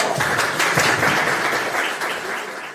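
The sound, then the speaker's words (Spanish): A crowd at a raffle and Christmas lights switch-on event applauds steadily for about three seconds, a dense wash of many hands clapping at once, loud, easing off slightly toward the end. “Un aplauso.”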